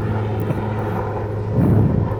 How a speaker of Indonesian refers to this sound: sorry ada iklan nih ada helikopter